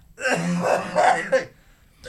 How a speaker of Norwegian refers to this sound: Beklager, med host igjen.